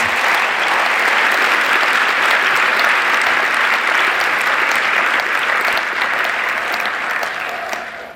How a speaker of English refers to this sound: Ed, you heard the applause.